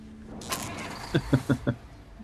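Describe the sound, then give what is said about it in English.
A hotwired tow truck engine turns over with a quick burst of noise followed by four rhythmic, chugging cranks as it catches, fairly loud, with no voices. “You wouldn't have thought a tow truck would be that easy to hotwire.”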